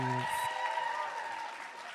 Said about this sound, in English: This is what you came for. Round of applause